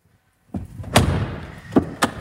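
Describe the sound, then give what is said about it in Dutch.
A car door is slammed shut with a heavy thud, followed by a couple of lighter knocks and rattles as it settles. No one speaks. “Zullen wij het portier eens een keer dichtgooien?”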